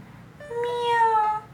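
A single drawn-out kitten meow lasting about a second, clear and tonal with a steady, slightly wavering pitch, sounding on its own with no talking.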